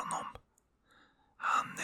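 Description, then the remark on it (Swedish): A voice mimics snoring with two breathy, rasping inhalation bursts, one at the start and one at the end, separated by a quiet pause. It is moderately loud, with no other talking. “snarkar. Han verkar ha somnat där bredvid källan.”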